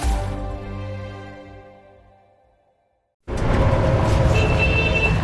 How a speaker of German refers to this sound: Heute beginnen wir mal mit dem typischen Verkehrssound.